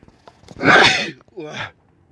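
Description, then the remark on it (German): A single loud sneeze bursts out sharply, followed by a shorter, softer breathy exhale, then quiet. No one talks. “ich muss gleich niesen, merke ich gerade, Achtung.”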